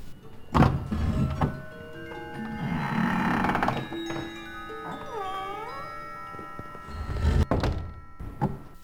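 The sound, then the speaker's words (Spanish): A door thuds shut with a dull knock, followed later by two more sharp thumps; in between, sustained tonal whines and a wavering, meow-like cry fill the quiet. “Cerró cautelosamente la puerta, la oscuridad, pese a una rendija que después distinguí, pudo parecerme total.”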